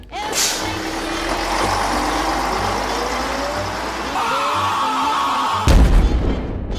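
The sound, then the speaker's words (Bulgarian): Busy city street traffic at morning rush hour rumbles steadily, with heavy engines droning, including a bus, a hiss of air brakes early on, and a sudden loud thump and burst of noise near the end. “Бориш се търпеливо с час пика по градските улици. Или тичаш запахтяно към най-близката спирка, защото си на косъм да изпуснеш автобуса.”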